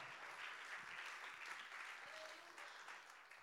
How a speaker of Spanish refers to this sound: Denle ese aplauso al Señor en esta linda tarde.